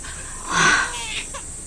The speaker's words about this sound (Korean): 어머, 아기가 울어요. 어느 집이지? 어, 저쪽이요.